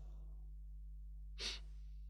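One short, soft snore from someone asleep in a dormitory at night: a single breathy, hissing exhale lasting a fraction of a second, alone against a low steady hum with no talking.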